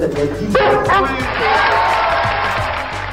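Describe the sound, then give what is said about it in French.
A dog barks a few times in quick, sharp bursts over a busy background of crowd murmur and voices at a film premiere, moderately loud. “Il est con ce chien là.”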